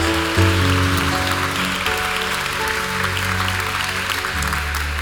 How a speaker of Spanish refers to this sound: Alguien puede darle un fuerte aplauso a Dios.